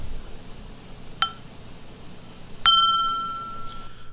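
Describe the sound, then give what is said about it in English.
Two bright, crisp glass clinks in a toast, about a second and a half apart; the second rings out with a clear, lingering tone that slowly fades. No one speaks over them. “Cheers to that.”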